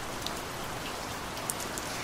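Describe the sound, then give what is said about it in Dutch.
Steady rain falls in a dense, even hiss, with a few sharper drops ticking on a surface now and then. No voices, just continuous rainfall. “Voor mij is niks zo rustgevend als ehm, de, het geluid van regen.”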